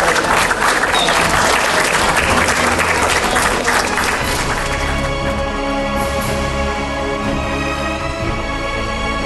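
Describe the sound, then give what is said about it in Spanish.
Loud, sustained applause from an audience in tribute to an environmental activist with more than 35 years of activism, a dense wash of many hands clapping that continues steadily for the whole stretch, easing slightly toward the end. “nuestro compañero que hoy está aquí presente con más de 35 años de activismo, el ecologista universal, que yo quisiera pedir en homenaje un fuerte aplauso también, porque es parte de la causa”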